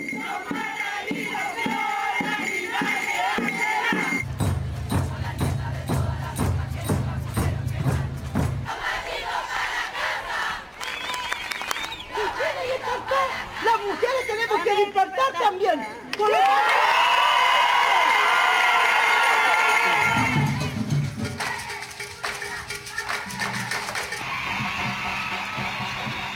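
A large crowd protesting in the social uprising that began in October 2019 shouts and cheers in loud, sustained waves, with rhythmic chanting and bursts of whistling and drumming rising and falling throughout.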